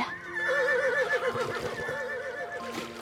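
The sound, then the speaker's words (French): A horse, one of those towing a boat along a canal at sunset, whinnies loudly, a long quavering neigh that wavers up and down for about three seconds, with faint low thuds underneath and no talking. “Il me dit Maman a sifflé pour que les chevaux se remettent en marche.”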